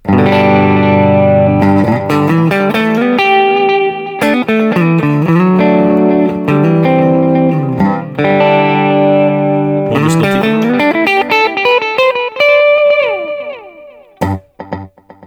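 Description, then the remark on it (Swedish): Loud electric guitar run through two delay effects in series, a 500-millisecond delay feeding into a 375-millisecond delay, its notes smearing into dense, overlapping repeats, playing steadily for the whole stretch before the echoes thin out and fade near the end. “Som att du skulle ha två delay-pedaler efter varandra på ett pedalbord.”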